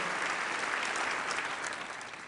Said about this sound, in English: Everyone give her a round of applause. Make her feel welcome.